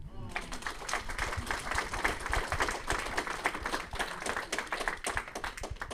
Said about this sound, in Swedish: Värt en applåd.